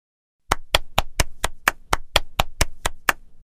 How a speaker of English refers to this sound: They show Dad their books. Dad claps.